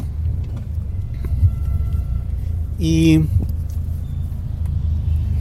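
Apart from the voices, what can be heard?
car engine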